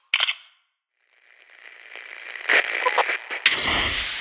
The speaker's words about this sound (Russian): Что это за щелчки были? Отзыв. Все двери музея закрылись, опустили ставни.